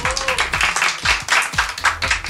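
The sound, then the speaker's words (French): A quiz audience claps together for the team Polar Circles after a correct answer, in a steady, dense patter of hand claps that keeps going for a couple of seconds, loud and continuous with small surges in intensity. “Euh, oui, vous pouvez applaudir.”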